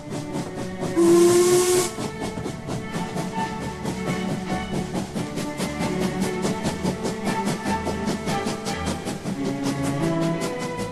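A steam locomotive's whistle sounds briefly with a loud burst of hissing steam, followed by the steady rhythmic chuffing and clanking of the engine running on, with no one speaking.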